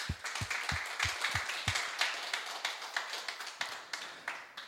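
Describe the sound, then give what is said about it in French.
A church audience claps together in a steady, fast rhythm to applaud the Lord during a morning sermon, sharp repeated claps over a dense wash of hand noise, with a few low thumps at the start and no one speaking. “Ouais, on peut applaudir le Seigneur ce matin.”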